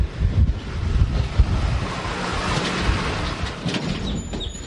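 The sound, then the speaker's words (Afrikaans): Strong wind buffets the microphone outdoors among cuttings planted in the ground last year, a steady low rumble with gusty surges throughout, and faint bird chirps briefly audible near the end. “wind waai bietjie baie nou hierso”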